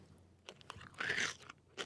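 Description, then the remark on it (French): A crisp crunch as a mouthful of crouton, radish and cucumber is bitten, followed by a few short chewing crackles, with no talking. “Là, on est dans la fraîcheur, on est dans la douceur, on est dans la rondeur du croque.”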